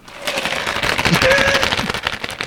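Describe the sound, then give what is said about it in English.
Ice cubes rattle in a drink cup of water, a dense, continuous flurry of quick irregular clicks and clinks as the cup is shaken, fairly loud throughout. “You got enough ice in that soda?”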